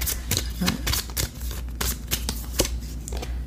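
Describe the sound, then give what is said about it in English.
A deck of tarot cards is shuffled in a steady series of crisp, riffling bursts, each a quick papery flutter, repeating for several seconds with no talking. “Oh my god, I had too many uh, here, so I'm gonna shuffle these up and tell them to pick one here.”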